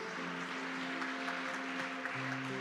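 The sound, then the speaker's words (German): Steady crowd applause for Jesus, a dense, even wash of many hands clapping without pause, layered over a sustained low musical chord that holds throughout and shifts slightly near the end. “Das ist ein Applaus wert für Jesus.”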